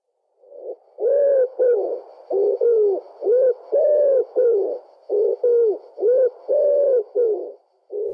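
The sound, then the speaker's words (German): A common wood pigeon coos its rhythmic song, soft hooting phrases repeated in steady groups with brief pauses between them, clear and alone without any talking. “bei der Ringeltaube ist das Höcku zu Gudrun. Ich spiele sie ab, wie das Original.”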